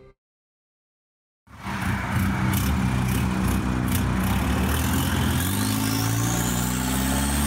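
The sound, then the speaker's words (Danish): After a moment of silence, a lowered pickup truck's deep engine rumbles in loud, its pitch climbing steadily as it rolls by and revs, with no voices. “Pludselig triller en skam sænket pickup forbi.”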